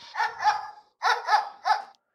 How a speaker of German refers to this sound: Hier ist der Hund.